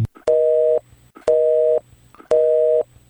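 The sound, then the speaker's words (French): Three loud, steady electronic beep tones from an answering machine on a phone line, each about half a second long and evenly spaced roughly a second apart, with no voices; the beep signals where to leave a message. “Bonjour, veuillez laisser votre message et vos coordonnées après le bip sonore, merci.”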